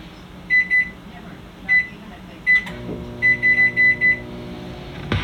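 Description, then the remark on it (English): A microwave oven hums steadily while its high electronic beeper sounds in short bursts, a pair, then singles, then a quick run of five beeps, clear. “This fucking microwave just sucks.”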